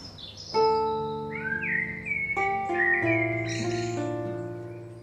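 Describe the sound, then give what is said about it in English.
Bright, warbling recorded birdsong trills and chirps over sustained, resonant harp chords that shift every second or so, played for residents at a care home on the outskirts of Peterborough; both fairly loud, with no talking. “listening to a combination of his bird song and his harp music.”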